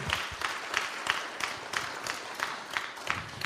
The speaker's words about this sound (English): And I want to personally thank Glenville for leading out in reaching its goal. Let's give yourselves a hand clap, everybody.